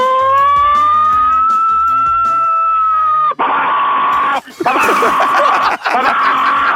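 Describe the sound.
A voice mimics an American fire truck siren for a guessing quiz, a long steady wailing tone held for about three seconds, then breaks into loud, harsh, rapid warbling bursts, strained.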